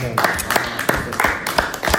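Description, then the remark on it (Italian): A live audience gives another round of applause during a live broadcast, clapping together in a steady rhythmic beat, sharp hits roughly three per second, with a continuous murmur of voices or music running underneath. “un altro applauso.”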